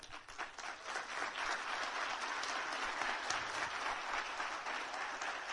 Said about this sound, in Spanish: Y yo quiero que le den un fuerte aplauso a mi esposa.